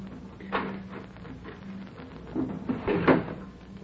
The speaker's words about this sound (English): Open those doors.